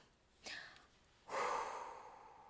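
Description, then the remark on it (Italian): An audible deep breath: a short sharp intake, then a longer, louder breathy exhale that slowly fades out. No one speaks. “Un respiro, un sorriso e cominciamo.”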